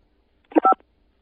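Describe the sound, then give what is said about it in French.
A single short telephone keypad beep from pressing the 5 key, a clear steady dual tone from one button press, heard alone against near silence. “Pour ne pas changer la couleur de votre téléphone, n'appuyez pas sur la touche 2. Appuyez sur la touche 5.”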